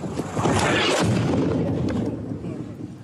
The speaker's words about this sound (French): Un obus russe s'écrase à seulement quelques mètres de ce bateau.